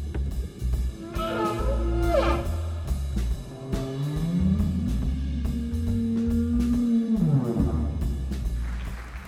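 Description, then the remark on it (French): Humpback whale song: long, sliding moans that rise and fall, a sustained low wail and higher whooping calls, melodies repeating at regular intervals like refrains, echoing steadily over a rumbling underwater background with no voices. “la baleine émet des mélodies qui se répètent à intervalles réguliers, un peu comme des refrains dans une chanson”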